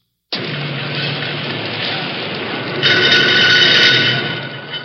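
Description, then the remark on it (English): Steady, dense industrial din of a car assembly line at a General Motors factory, a continuous loud mechanical roar that swells midway with harsher, brighter clattering before easing slightly. “The sound you hear now is on an assembly line at one of the General Motors factories, which, along with Ford, Chrysler, Packard, Nash, Kaiser, and the others, last year produced more than 30,000 cars, trucks, and buses every day.”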